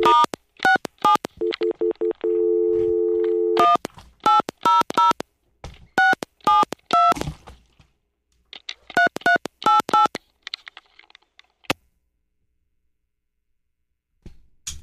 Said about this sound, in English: Let's see if I can make this work. Okay. Phone. Call.